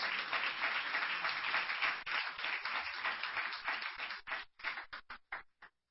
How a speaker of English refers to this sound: Come on, clap your hands to the Lord if you believe this.